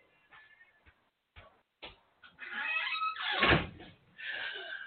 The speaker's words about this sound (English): You know, I hate to say I gotta close my front door because it seemed like everybody and their mama want to be making noise. So give me one second.